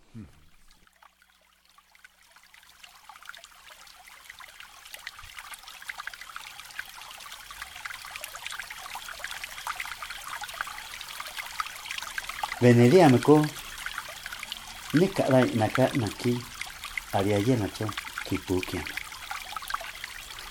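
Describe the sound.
Night ambience in a canyon: a steady trickling water hiss that swells gradually, joined late by several short bursts of indistinct voice-like calls.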